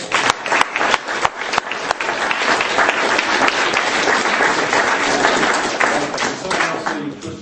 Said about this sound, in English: And just, let's give her a great clap.